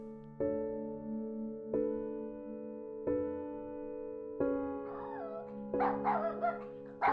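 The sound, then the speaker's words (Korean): A dog gives five evenly spaced, drawn-out barks that ring on like mournful cries, while higher, wavering whimpers rise over the last few, fairly loud with no one talking. “처량하게 짓는 녀석이 안쓰럽고 불쌍하지만 다음 스케줄 때문에 바이크를 무한갯벌 쪽으로 돌린다.”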